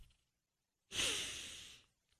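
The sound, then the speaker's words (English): A single long, breathy exhale, like a heavy sigh, lasting about a second before fading out; no speech. “Are you breathing?”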